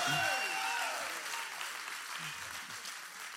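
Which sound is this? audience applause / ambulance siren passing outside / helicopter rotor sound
audience applause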